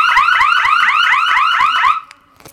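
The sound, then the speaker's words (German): A just-armed, motion-triggered electronic alarm, set off by someone walking around, wails loudly in rapid repeating upward sweeps, piercing, sounding for about two seconds before being switched off abruptly, followed by a few faint clicks. “So, jetzt ist das Ding scharf. Wenn ich jetzt hier anfange, irgendwo noch so ein bisschen rumzulaufen, dann geht das gleich los.”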